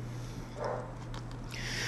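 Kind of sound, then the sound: animal, dogs barking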